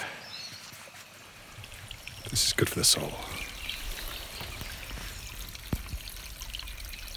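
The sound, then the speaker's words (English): A brook trickles steadily throughout, a soft continuous babble of flowing water with a bit of bird call in the background, a person speaking briefly over it and a couple of sharper splashy bursts near the middle. “Just the sound of the brook bit of bird call in the background and, and nothing else.”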